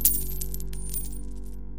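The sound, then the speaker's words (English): Coins clink and drop in a few quick, bright metallic bursts over the steady low hum of a vending machine as people buy snacks, fairly clear, with no voices. “He loved the hum of the machine and the sound of coins clinking as people bought snacks.”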